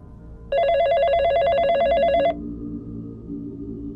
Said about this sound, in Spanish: Recuerdo que era un viernes por la noche cuando escuchamos que sonó el teléfono.